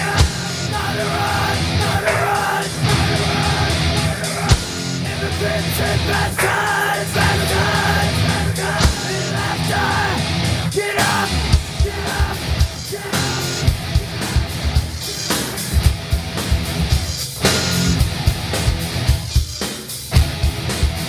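Loud, dense industrial metal plays throughout, with distorted guitars, pounding drums and harsh shouted vocals over a driving, relentless rhythm.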